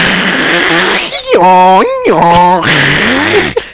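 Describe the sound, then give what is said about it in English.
A person vocally imitates an old dial-up internet modem connecting: raspy crackling hiss, then two sustained buzzy electronic-sounding tones, then more static-like crackle. Loud, with no other sounds. “That's what the internet used to sound like, children.”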